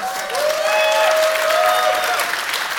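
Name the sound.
audience applause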